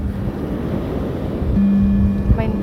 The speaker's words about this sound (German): Das Rauschen der Wellen dringt an meine Ohren.